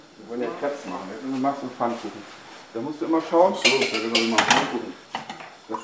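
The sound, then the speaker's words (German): A utensil scrapes and clinks against a frying pan on a stove as an educator shows a boy of about 15 or 16 how to spread batter thin in the pan, with a brief burst of louder clatter midway, all under steady talking. “steht am Herd und zeigt einem Jungen von ungefähr 15 oder 16 Jahren, wie man Teig in der Pfanne dünn ausstreicht.”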